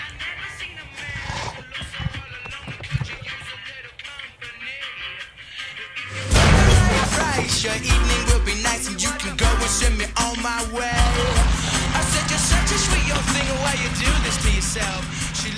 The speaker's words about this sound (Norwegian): et annet lydklipp fra dette spillet, nemlig musikken som blir brukt i en av introene